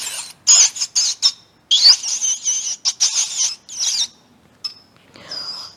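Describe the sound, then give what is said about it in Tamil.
A rat squeaks in a rapid series of shrill, high-pitched chirps, fairly loud, with a brief pause before a few fainter squeaks trail off at the end. “அப்போது ராஜா எலி வெளியில் வந்து தான் ராஜா எலி அப்படி கத்துச்சு இதோ இந்த மாதிரி”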